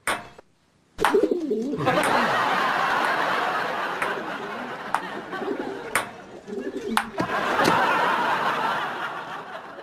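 Pigeons coo in low, warbling bursts over a steady wash of background noise, with a few sharp clicks scattered through. The cooing is fairly clear.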